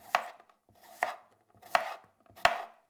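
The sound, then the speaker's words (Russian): A knife cuts through mushroom stems against a board in four crisp, evenly spaced chops, each a sharp knock with a short fading tail, and no voices are heard. “Отрежьте ножки у грибов”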